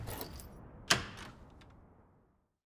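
A key rattles and clicks in a lock as someone home from school, getting no answer to the doorbell, unlocks the front door of a family home, then a sharp latch clack as it swings open, followed by a soft fading rustle. No voices.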